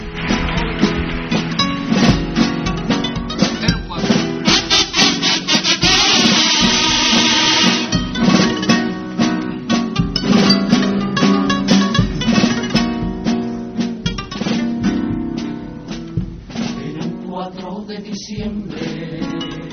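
A choir sings a carnival comparsa copla in full voice, backed by strummed instruments, the music loud and unbroken for the whole stretch with a slightly muffled, recorded quality.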